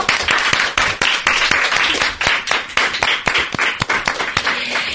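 An audience applauds steadily, a dense wash of many hands clapping with sharp individual claps standing out, sustained and fairly loud for the whole stretch, with no talking.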